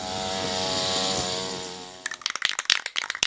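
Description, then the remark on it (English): A small two-stroke weed whacker engine drones with a steady, buzzy whine for about two seconds, then gives way to rough, crackling bursts of cutting and revving, fairly loud. “And a lot of times, these molecules come from stuff that we create, like exhaust from buses and cars, weed whackers,”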